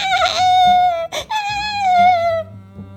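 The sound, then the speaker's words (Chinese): Two small tarsiers that have fallen into a dark tunnel cry in high, wavering wails: a long sustained cry, a brief sharp break, then another drawn-out whining cry that slowly falls in pitch and fades, with no talking. “很快的就知道，哭声来自两只深陷险境的小眼镜猴。”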